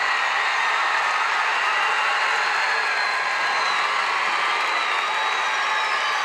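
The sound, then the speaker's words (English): A huge arena crowd roars nonstop, a dense wall of cheering and shouting with a few whistles cutting through, loud and steady from start to finish with no clear voices. “Crowd's going crazy”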